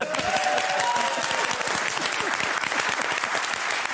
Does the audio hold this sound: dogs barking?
no